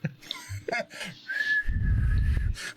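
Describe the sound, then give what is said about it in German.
A single sustained, steady whistle tone blown on a whistle lollipop holds for about a second, fairly loud, over a low rumbling noise, with brief voice sounds and rustling before it. “Lutscher, Lutscher, mit so einem Pfeiflutscher.”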